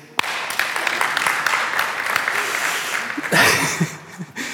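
An audience breaks into applause, a dense, steady patter of many hands clapping for about four seconds, swelling briefly near the end before tapering off.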